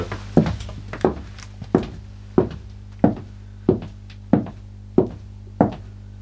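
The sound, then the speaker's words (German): Steady series of about nine hollow wooden knocks on a floor, evenly spaced roughly two-thirds of a second apart, each a resonant thud with a short boomy decay, clear with no talking. “der dann nochmal hohler ist.”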